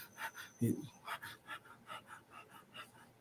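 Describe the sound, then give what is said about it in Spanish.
A person demonstrates the quick, shallow breathing of stress, high in the upper lungs: a steady run of short, breathy puffs about every quarter second, fairly soft, with one brief voiced sound near the start. “Cuando estás estresado regularmente, estás respirando aquí, superficial.”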